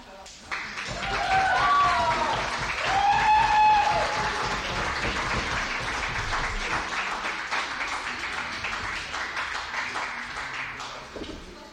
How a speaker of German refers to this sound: Und wenn er nochmal klatscht.